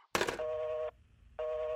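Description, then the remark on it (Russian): A sharp burst like a receiver being picked up, then two steady electronic telephone tones separated by a short pause, loud, with no voices; a telephone ringing in a savings bank in Mytishchi during a robbery. “И вот в общем, однажды при налете на одну сберкассу в мытищах зазвонил телефон.”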